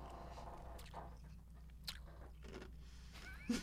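Someone chews the leftover ice from a large drink, with a few sharp, crisp crunches spaced irregularly between quieter grinding and mouth sounds, and no talking.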